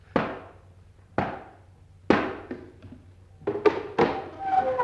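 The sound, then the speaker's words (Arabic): Three heavy, resonant knocks from a door knocker, one of three rings on the second door, land about a second apart, each ringing briefly, followed by a quicker cluster of clattering thuds near the end. “ها الباب التاني وادي التلات حلقات اما خبط تلات خبطات”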